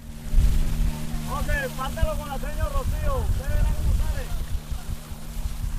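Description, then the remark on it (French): The engine of a long, narrow motorboat (a lancha) drones steadily and loudly throughout, a low rumbling hum on the water. The boat is crossing marshes from near Barranquilla toward the village of Nueva Venecia, carrying schoolteachers. Several voices talk indistinctly over it in the middle stretch. “Une fois à bord de ce qu'on appelle ici une lancha, il faut compter 1h30 de navigation pour arriver au milieu de nulle part, au milieu des marécages et ainsi trouver le village de Nueva Venecia.”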